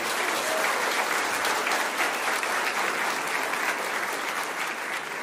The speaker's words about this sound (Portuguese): Para Jesus e para vocês, dê uma forte salva de palmas.